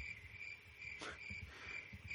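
Crickets chirp in a steady, high-pitched drone, fairly faint and continuous, with a soft low rumble underneath and a brief rustle partway through. No one speaks.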